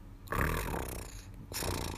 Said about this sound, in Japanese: あと、猫がこう甘えてる時っていうので、クルーって喉を鳴らすのがあるんですよ。これを通称僕はゴロゴロって呼んでるんですけど猫はね甘えると喉を鳴らすんですよ本当に今みたいなオートバイのエンジン音みたいな